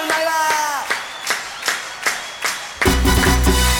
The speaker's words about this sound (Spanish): A ver las palmas.